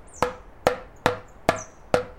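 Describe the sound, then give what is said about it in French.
Five sharp hammer blows land in a steady, even rhythm as a roof is repaired, each a crisp, loud knock with a brief ringing tail, and no voices. “En quelques coups de marteau, l'affaire est réglée.”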